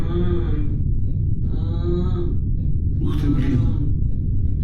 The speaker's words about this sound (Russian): Я отвернулся от него и снова упал лицом в траву. А потом издал звук, который отец называет стенаниями.